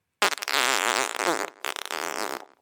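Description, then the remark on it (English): A long, loud, buzzing fart sound effect, blaring for over two seconds with a brief break before sputtering on in a flappy, fluttering trail. No voices are heard. “here goes the stankiest sound effect I could find.”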